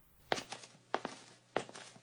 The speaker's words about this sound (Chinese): 慕白走了过去，把门打开。